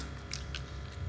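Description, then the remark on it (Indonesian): Quiet chewing of a crunchy fried banana snack, with three or four crisp crunches spread over about a second against a low steady background hum and no talking. “Eh, mangan mangan sih sambil ini tadi nganu cuk tadi ASMR apa ASMR ASMR apa itu jadi suara itu malu suara apa itu ya, Oh ya, makan.”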